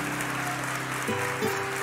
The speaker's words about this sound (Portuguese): Se você crê, faz alguma coisa aí, dá um aplauso a ele.